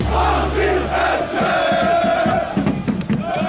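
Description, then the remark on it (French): A large crowd of football supporters, gathered to cheer on their team, chants together in unison, loud, with a low rumbling drone underneath and sharp bursts of shouting and clapping toward the end. “Ils ont décidé de venir aider leurs euh, protégés, de les supporter euh, d'une seule voix et de mettre une ambiance de fou qu'ils peuvent pas mettre dans le stade.”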